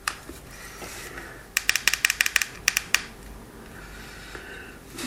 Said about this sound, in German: So, wir schrauben jetzt oder stecken jetzt den Pott wieder auf unseren Akkuträger. Das macht einmal durch das Magnet. Klick.